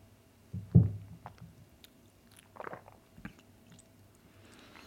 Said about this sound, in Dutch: Neem ik nog even een slokje.